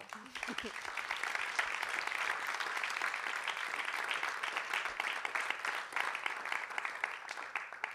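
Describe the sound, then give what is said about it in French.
Sustained applause from an audience for three guest speakers fills the whole stretch, a dense, steady wash of many hands clapping with no pauses. “On peut les applaudir.”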